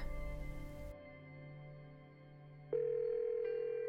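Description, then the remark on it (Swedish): A steady electronic telephone tone hums on, then a higher, louder tone switches in partway through and holds, like a call connecting or ringing, with no one speaking, as a woman calls home to Sweden on a phone with a borrowed SIM card. “Det fungerar och hon ringer hem till sin mamma i Sverige.”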